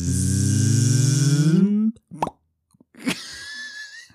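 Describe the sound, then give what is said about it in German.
A sustained hummed, rising vocal tone ends abruptly, followed by a sharp mouth-made plop and then another brief popping click, fairly loud with no talking. “Ja, ich, ich glaube vor allem habe ich es diesmal voll versaut, den Plop.”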